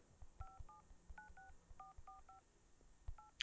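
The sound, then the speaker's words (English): A quick series of about eight touch-tone telephone keypad beeps as a number is dialed, each a short dual-pitched tone, pressed in an uneven rhythm with soft thumps and handling noise underneath, fairly quiet overall. “I hear the dialing. I hear I hear the number pads.”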